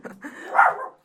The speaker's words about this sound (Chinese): 谁的狗在叫？